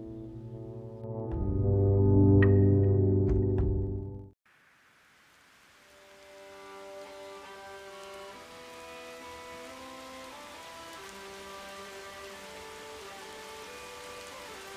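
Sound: heavy rain falling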